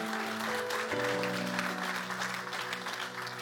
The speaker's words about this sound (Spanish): Hermano, déle ese aplauso fuerte a Cristo.